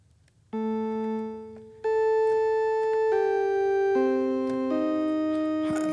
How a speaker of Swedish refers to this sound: kan låta så här, det blir, det blir nästan en orgel liksom. Men den, har en, liksom, den är ljus men inte spetsig. Mm. Um, den kändes ju som ett fräscht ljud.